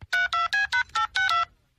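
A rapid string of about seven electronic keypad beeps from a mobile phone being dialed to detonate explosions in an animated TV scene, evenly spaced, each a short bright tone, with no voices.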